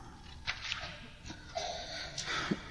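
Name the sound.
sneeze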